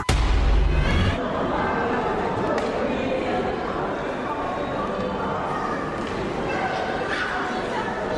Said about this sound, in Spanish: Estamos escuchando sonidos de eh, un centro comercial, porque ahí fue en donde se desarrolló nuestra historia sonora de hoy.